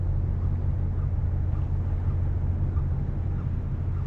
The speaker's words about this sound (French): On a là affaire à un hum typique, un bruit distant de moteur diesel en marche, parfois ressenti comme une sensation plutôt que comme un bruit.